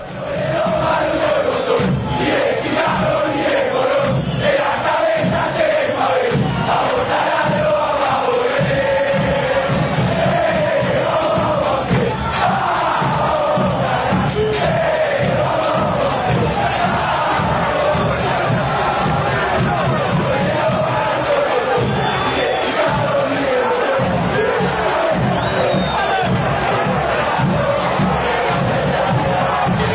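A large football crowd loudly sings the chant "No Soy de Lomas" in unison, backed by steady, pounding samba-style drumming that runs continuously throughout the half minute.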